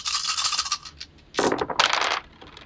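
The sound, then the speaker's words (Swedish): Yellow plastic dice rattle briskly in a cup during a game, then tumble and clatter across a hard surface in two quick bursts of bright clicking, with no talking; the roll gives two misses. “Två stycken missar där med gula tärningar.”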